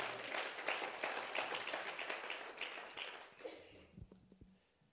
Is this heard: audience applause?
yes